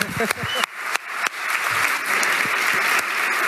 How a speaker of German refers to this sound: Applaus